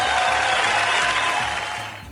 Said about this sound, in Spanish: Segundas en el campeonato, perfecto. Eso es un aplauso para Mora.